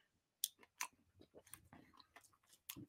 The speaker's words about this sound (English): if he can get through chewing that bite of food.